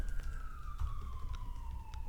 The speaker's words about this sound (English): Another, another uh, fire. Another one. Man. That one's ambulance this time.